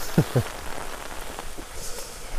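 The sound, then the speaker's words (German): Rain patters steadily on an umbrella during a short mushroom-foraging walk, a continuous hiss with two heavier, dull drops thudding near the start; no voices. “Ja, ich bin ja, ja nur noch ein bisschen äh, vom Schirm geschützt.”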